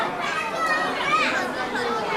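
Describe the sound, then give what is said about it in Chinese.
A dense, steady hubbub of many overlapping voices from the visitors at a crowded zoo, with children's higher-pitched chatter and calls rising out of the crowd noise throughout. “我也没想到动物园会这么多人。”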